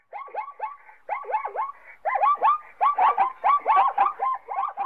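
A neighbor's small dog yaps in rapid, high-pitched bursts, several sharp barks in quick succession, growing louder and more insistent toward the end, with no talking.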